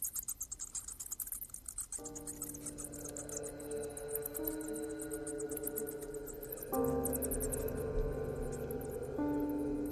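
Dense, rapid high-pitched squeaks and chitters of bats in a cave fill the whole recording, while a low sustained droning tone enters after a couple of seconds and grows louder near the end.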